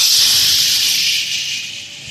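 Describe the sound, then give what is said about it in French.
A loud, steady hiss of air escaping from a boat's left float, just punctured by a piece of coral, a continuous high-pitched rush that holds constant and fades slightly toward the end, with no voices. “il y a le bidon gauche qui vient de se faire percer par un morceau de corail.”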